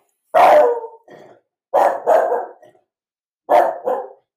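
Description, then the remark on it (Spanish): A dog barks in three short bursts, each a loud sharp bark followed by a softer second one, with brief silences between the groups. “Entonces, perdón, esta de perro.”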